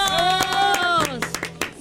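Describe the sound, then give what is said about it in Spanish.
A short burst of irregular hand clapping from a small group, with a loud voice cheering over it in a long, falling whoop, celebrating a father's birthday. “¡Aplausos!”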